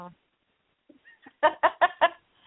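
A pet bird named Pony Bird calls out, giving four quick, evenly spaced chirps in a row, loud, after a few faint little sounds and brief quiet.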